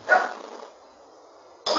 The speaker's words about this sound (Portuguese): Tem um cachorro aí, Adriano?